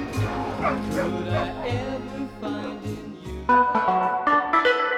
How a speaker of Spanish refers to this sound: Sus perros Louis y Banana participan con unos ladridos para cerrar